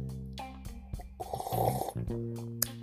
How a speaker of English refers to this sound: or Derby City as we would call it across this side of the pond, slurping our tea like this.